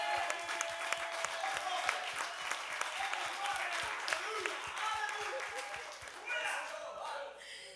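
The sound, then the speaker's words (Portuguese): An audience at a church gathering applauds the Lord steadily, a dense rush of many hands clapping at once for several seconds, with a few voices mingled in before it thins out toward the end. “Vamos uma salva de palmas ao Senhor pela vida.”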